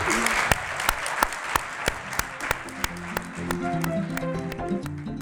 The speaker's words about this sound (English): Um, let's give one more round of applause to three people doing good.